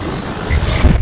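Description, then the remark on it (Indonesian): A short whooshing sweep with a high tone gliding upward over a rumbling low swell, like a time-travel transition effect, cutting off abruptly after about a second. “Kita naik mesin waktu ya, teman teman Nusantara.”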